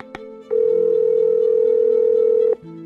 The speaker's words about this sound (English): His arrest report had a phone number, so I gave him a call.